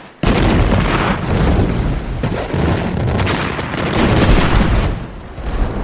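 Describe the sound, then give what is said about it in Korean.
Heavy cannon fire from Yi Sun-sin's Joseon navy ships, firing at Japanese ships, erupts in a loud, continuous barrage of overlapping booms and blasts, rumbling and crackling for several seconds with no pause and no one speaking. “이렇게 화포를 날려서 깨부쉈다는 얘기입니다.”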